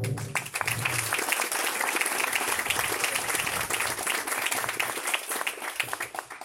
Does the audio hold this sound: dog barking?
no